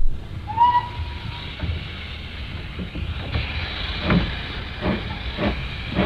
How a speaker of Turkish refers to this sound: Bak, onun arkasındaki de tren istasyonu. Oraya Jacksonville'den ve daha bir sürü yerlerden trenler gelir ve başka başka yerlere giderler.